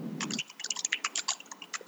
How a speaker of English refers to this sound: Sounds like he's typing. Somebody has a mechanical keyboard.